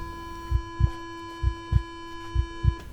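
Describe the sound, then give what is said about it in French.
A heartbeat sound effect representing a woman's pounding heart: three paired low thuds in a steady lub-dub rhythm over about three seconds, set against a constant electrical hum, with no voices. “Elle sent son cœur qui palpite.”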